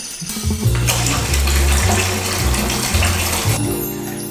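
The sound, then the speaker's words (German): Cold water gushes steadily from a tap into a filling bathtub to cool down a too-hot bath, a loud, continuous rush with low resonant tones underneath, running for several seconds before easing slightly at the end. “Auf jeden Fall müssen wir jetzt erst noch mal ein bisschen kaltes Wasser nachfließen lassen.”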